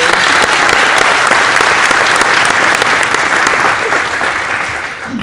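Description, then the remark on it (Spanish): A crowd breaks into loud, sustained applause for newcomers starting in the business, a dense wash of many hands clapping steadily for about five seconds before easing off slightly at the end. “Un aplauso bien bacano para ustedes.”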